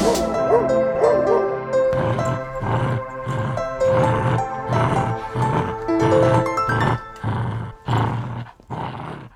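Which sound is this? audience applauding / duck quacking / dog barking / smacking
dog barking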